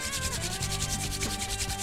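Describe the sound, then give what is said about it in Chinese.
Two palms, held palm to palm at ninety degrees, rub together very fast, making a steady, rhythmic swishing with quick repeated strokes for about two seconds, with a faint low tonal hum underneath and no talking. “一般的出招姿势是这样的，大家可以边听边跟着做：半蹲，翘臀，双手置于身体的侧后方，双掌呈九十度垂直，掌心相合，然后双掌开始进行高速的摩擦。”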